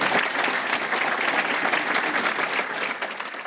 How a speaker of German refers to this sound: Vielen herzlichen Dank. Ein Applaus für meine Gäste auf dem Publikum.